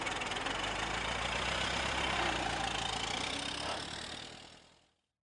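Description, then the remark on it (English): The engine of a car, just repaired after its radiator hole was soldered up, idles steadily with a continuous rough, throbbing rumble, even in loudness, before fading away over the last second. No voices are heard. “By the aid of drills and copper wire, the master mechanic had stitched the severed arms to their stubs, soldered up the hole in the radiator, and the disabled car was again in running order.”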